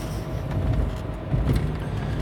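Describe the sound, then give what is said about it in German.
Steady interior rumble of a car on the move after its wheel bearing was repaired, low engine drone blended with constant road noise and tire hum, fairly loud and continuous with no voices. “Das Ding ist aber, ich hoffe, da kommen nicht noch mehr Reparaturen, äh, weil ich ja äh, jetzt, nachdem das Radlager repariert ist und jetzt sich das Auto wieder anhört wie ein Auto, ich hoffe, damit ist die Atmo nicht völlig zerstört,”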